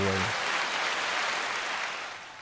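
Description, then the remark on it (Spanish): A crowd applauds loudly and steadily, a dense wash of clapping that fades slightly toward the end, with a brief voice at the very start. “cómo me aplaude mi público”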